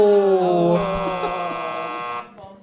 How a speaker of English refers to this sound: you get fail Horns for fail Horns. There you go.